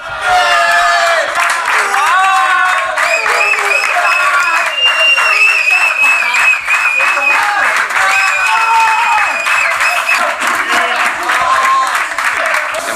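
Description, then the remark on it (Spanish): A group of teammates cheers and shouts excitedly in a dressing room as Luka Modric arrives, the last to get there, with clapping and whoops mixed into a loud, continuous celebratory roar that holds steady throughout. “Y luego atendió a la televisión del club, fue el último en llegar al vestuario y fíjate este sonido, la que se lió con la llegada al vestuario de Luca Modric.”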